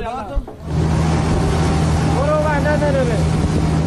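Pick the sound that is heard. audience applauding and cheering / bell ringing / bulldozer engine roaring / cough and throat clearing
bulldozer engine roaring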